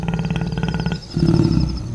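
A lion roars loudly in two deep, rumbling bursts, the second lower and grittier, with a faint high chirping in the background and no talking.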